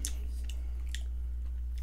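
Someone eating pumpkin with a fork: a few sharp, irregular clicks and scrapes of utensil and chewing over a steady low hum, with no talking.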